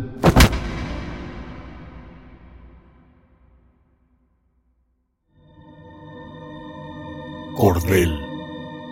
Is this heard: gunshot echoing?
yes